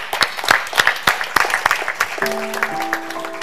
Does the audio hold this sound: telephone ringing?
no